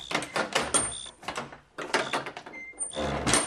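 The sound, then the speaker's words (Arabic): A door is opened with a series of scraping, rattling clunks in three or four noisy bursts, fairly loud, with no one talking. “يروح توا يقوم حل الباب”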